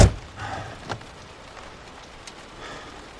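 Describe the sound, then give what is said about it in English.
Heavy rain pours down on an overcast morning in a steady, hissing wash, with a few sharper splashes near the start and no voices over it. “The next morning, it's overcast and pouring rain.”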